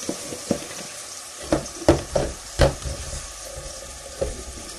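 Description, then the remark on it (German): Onions sweating in a pan give a steady, soft sizzle, broken by several sharp clicks and scrapes like a utensil knocking and stirring. No one speaks. “Dann kann man ein bisschen abtropfen, während die Zwiebeln anschwitzen.”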